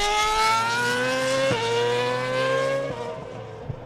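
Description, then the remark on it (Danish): A race car screams past at high speed, its engine climbing in pitch through two sharp gear shifts before fading slightly, loud with no voices. “Den adrenalin, du får, at du står og kigger på en bil, der kører i så højt fart, og de ting, du kan høre, og hvor meget det er larmet, duften af benzin.”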